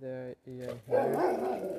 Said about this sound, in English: That's my dog. Another dog appears in front of my garden, and because of this, he tried tried to get him to kill him, finish him.